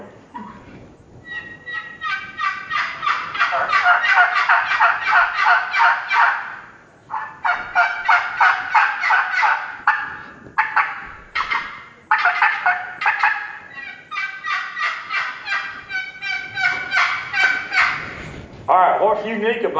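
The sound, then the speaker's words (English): Loud, raspy hen yelping from an aluminum turkey call with an aluminum lid, running in rapid rhythmic series with short pauses between runs, dominant for the whole stretch. “The lid is made out of aluminum and it's got volume and it's got a just old good nasal sound that the turkeys love.”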